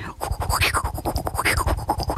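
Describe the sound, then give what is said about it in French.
A voice imitates the sound a toothbrush made touching teeth, likened to a 1970s wah-wah guitar: rapid rhythmic pulses with a sweeping, scratchy, nasal tone, steady and fairly loud for about two seconds without any spoken words. “ça sonnait comme une petite guitare, là, les petites guitares wah-wah des années 70.”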